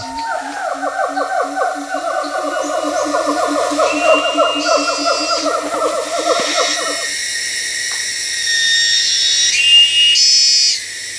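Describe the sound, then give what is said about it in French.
Dense jungle ambience at the edge of a reserve with many animals, mostly monkeys: a loud run of rapid, rising monkey whoops fills the first seven seconds, over constant high-pitched insect and bird chatter that carries on alone to the end. “Nous entendons beaucoup d'animaux, surtout des singes, qui ne sont pas si faciles à observer.”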